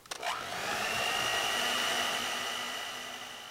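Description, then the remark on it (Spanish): An electric kitchen mixer runs with a steady, loud motor whir and a thin high-pitched whine, starting with a few quick clicks and holding evenly throughout, with no voices. “Lo dije gritando, pero no muy alto, mientras mi madre tenía en marcha la batidora.”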